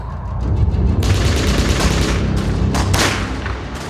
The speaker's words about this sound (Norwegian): Tyskernes skudd begynte å hagle. Kulene traff huleveggene med en voldsom kraft, og smellene ga gjenklang.